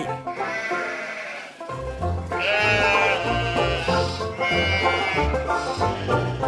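Sheep bleat loudly and close by, several wavering, nasal calls overlapping almost continuously, as if a small flock is calling at once, with no talking.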